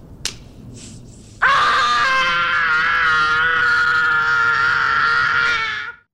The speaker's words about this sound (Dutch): doet van die lotion op zijn wangen, kletst zijn handen tegen zijn kaken en gilt